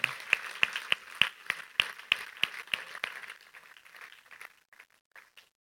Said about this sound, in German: Danke euch vielmals für den Einsatz, den ihr gegeben habt gestern. Geben wir Ihnen doch nochmal einen riesen Applaus. Merci vielmals.